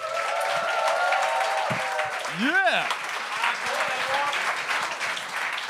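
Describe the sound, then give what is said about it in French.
An audience applauds and cheers loudly and steadily throughout as the next judge is welcomed, with a single shouted whoop rising and falling near the middle. “Faites un maximum de bruit”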